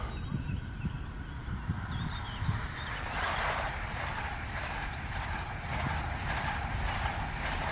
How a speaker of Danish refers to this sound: Det er meget smukt med de her tomme tog, der bare kører.